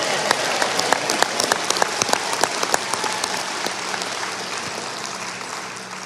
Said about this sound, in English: would you join together in a round of applause for Matthew